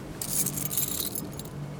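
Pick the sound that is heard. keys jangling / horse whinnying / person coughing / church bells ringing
keys jangling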